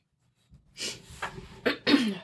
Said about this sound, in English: I need to blow my nose.